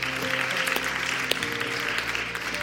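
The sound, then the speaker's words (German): Steady applause from an audience after a prayer, a dense crackle of many hands clapping at an even, moderately loud level with no one speaking over it. “Gib doch aus wieder nochmal einen Applaus.”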